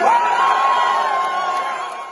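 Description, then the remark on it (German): A crowd of SPD supporters cheers loudly and steadily at an election party after the Hamburg state election, a dense roar of many voices with a high whoop rising over it near the start, sustained without pause before easing slightly toward the end. “Die SPD kann also doch noch jubeln.”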